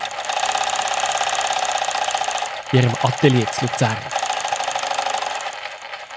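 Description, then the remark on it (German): A sewing machine, one of two in a workshop with a large table where clothes and underwear are designed and sewn, whirs steadily and continuously throughout, with a brief stretch of speech rising over the mechanical hum midway through. “Es hat äh, zwei Nähmaschinen.”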